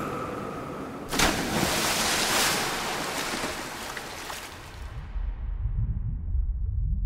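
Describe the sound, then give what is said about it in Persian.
A sudden heavy splash as a car, driven along the wooden boardwalk of a pier, falls off the end into the sea, followed by seconds of churning, rushing water and surf noise, then a deep low rumble of bubbling water as it sinks. “بعد از مکس کوتاهی دنده را جا کرد و پایش را روی پدال فشرد و ماشین روی نوار چوبی اسکله به حرکت درآمده و در انتهای پل داخل دریا افتاد”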